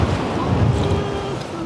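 Steady roar of sea waves washing against the shore on Rügen during a storm, with gusty wind buffeting the microphone throughout, while wading and fishing for sea trout; a dense, continuous outdoor wash with no clear breaks.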